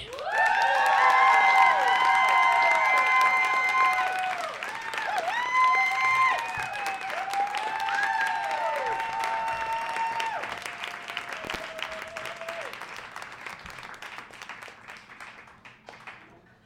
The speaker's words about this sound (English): So please give it up as loud as you possibly can because these expensive microphones are capturing your applause for future posterity's sake.